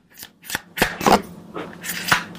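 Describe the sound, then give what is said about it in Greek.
An old floppy disk drive whirs and scratches through a rapid series of harsh mechanical bursts, irregular and rasping, with brief gaps between them. No voices are present. “Οι Δισ- παλιές οι δισκέτες.”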